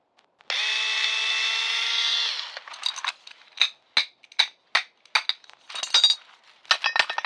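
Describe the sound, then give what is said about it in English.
A power tool whirs steadily for about two seconds, then a rapid series of sharp metallic clinks and clanks follows as a metal panel covering brain circuitry is pried off with tools, fairly loud with no talking. “Now help me pry this panel off my brain circuitry and let's get to work.”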